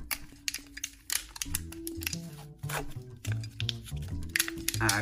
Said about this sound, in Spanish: Para las personas que están escuchando esto en podcast, acabo de abrir una aguja de 27.